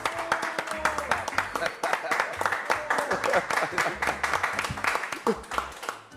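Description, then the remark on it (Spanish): An audience applauds steadily for about six seconds for the footballer Cóndor Mendoza, a dense, bright patter of many hands clapping at once, with scattered voices and cheers mixed into the crowd noise. “Un aplauso, gente.”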